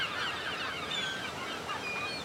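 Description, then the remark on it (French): A dense chorus of a huge number of seagulls flying together in a great flock under a blue sky, calling over one another, shrill overlapping cries filling the whole stretch without a break, fairly loud and constant, with no voices. “Il y a énormément de mouettes.”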